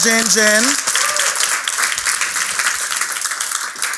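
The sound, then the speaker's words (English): A crowd breaks into steady applause for the DesGen team, many hands clapping in a dense, continuous patter that holds for several seconds. A short voiced call rises at the very start. “Big round of applause for Des”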